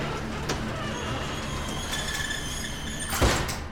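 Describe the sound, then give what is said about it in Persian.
The heavy door of a storehouse slides and rattles open, a low scraping rumble with a sharp metallic clunk near the end, over a steady background hum. “سرعتش رو کم کرد تا رسیدیم جلو در انبار از ماشین پیاده شدم در رو باز کردم و اومدم داخل”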